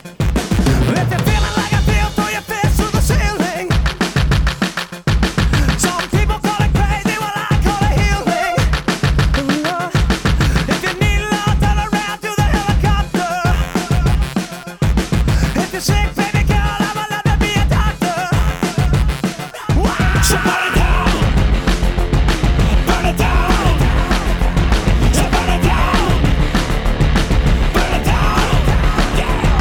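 A loud alternative rock song with a steady pounding drum beat and dense layered instruments, building into a fuller, denser wall of sound for the final stretch.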